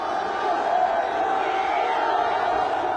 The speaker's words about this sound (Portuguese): Foi só ele aparecer na janela do aeroporto de Paris para os torcedores enlouquecerem.